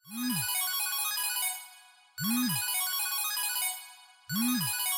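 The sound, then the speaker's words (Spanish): A mobile phone ringtone plays three times in a steady repeating pattern, each bright electronic burst starting with a swooping tone and ringing out loud, with no voices. “Oye, tu computador pequeño está sonando.”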